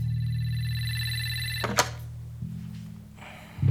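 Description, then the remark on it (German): A telephone rings with a steady, buzzy electronic tone for about a second and a half, then cuts off with a sharp click, leaving a low hum. “Mein Telefon war offenbar doch nicht defekt.”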